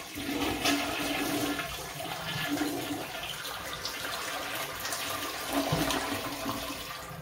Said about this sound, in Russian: Okay, so this is what I'm talking about. When you go ahead and flush the toilet,